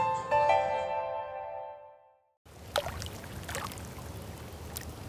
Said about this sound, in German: Die MS Rossini liegt ruhig auf der Donau. Auf der weißen Bugspitze spiegelt sich das Wasser. Nur das Brummen der Dieselgeneratoren, die die Elektrik des Schiffs am Laufen halten, ist zu hören.